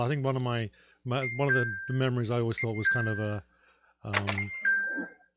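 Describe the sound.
A mobile phone ringtone sounds in a few steady electronic tones, repeating at intervals underneath a person talking, moderately loud but partly masked by the voice.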